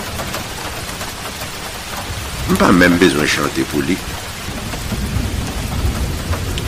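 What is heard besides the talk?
rain falling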